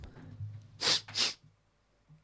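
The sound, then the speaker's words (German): Two quick sneezes in close succession, loud, with no talking around them and only a faint low hum in the background. “Entschuldigt.”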